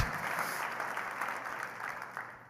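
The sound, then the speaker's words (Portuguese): An audience claps together for Jesus for the life of Barnabas in a sustained, dense round of applause, a steady wash of overlapping hand claps that tapers off slightly toward the end, with no one speaking. “Será que a gente pode aplaudir um pouco a Jesus pela vida desse cara?”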